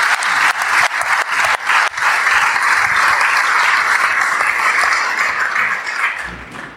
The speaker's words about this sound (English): And if you had any fun on it today, I'd like to hear a little round of applause for that course.